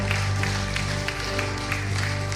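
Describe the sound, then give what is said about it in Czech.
An audience at a church service claps steadily in a dense, continuous wash of applause, with sustained musical tones humming underneath throughout. “Môžeme dať veľký potlesk.”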